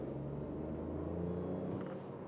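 Steady low rumble of a car engine as a car passes wide on the road, fairly loud throughout, with a droning tone that shifts slightly in pitch as it drives.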